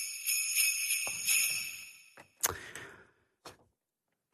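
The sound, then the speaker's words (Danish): Kitchen utensils clatter and clink as someone rummages in a kitchen at Christmastime, with bright metallic ringing at first, then a few sharp, separate clanks of metal on metal before the sound dies away to silence. No one speaks. “Vi har taget en enkelt side, der foregår i køkkenet, der bliver rumsteret, og det er jul.”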